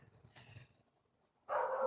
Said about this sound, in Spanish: Y yo les hacía el comentario de precisamente a mí me molestaba el que mis vecinos dijeran que, mis perros hacen bullas, como ustedes lo están escuchando.